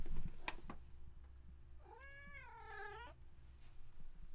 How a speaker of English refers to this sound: Shut up, Gray Kitty. Actually, speak your truth. Gray Kitty.